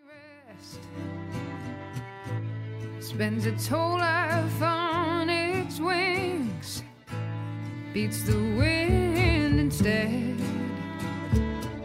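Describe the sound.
A song plays loud: a vibrato-rich sung vocal over a steady bass line and sharp percussive hits, with a brief dip in the middle before the full band returns.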